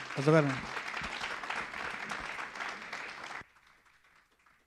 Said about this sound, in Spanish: Dale un aplauso al Espíritu Santo y que el Señor les bendiga.